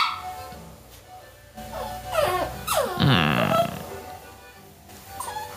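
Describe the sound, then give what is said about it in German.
A small Jack Russell Terrier puppy growls and lets out high, wavering whimpers and whines in short bursts, moderately loud, with no talking over it. “Oh Gott, so ein kleiner Jack Russell Terrier?”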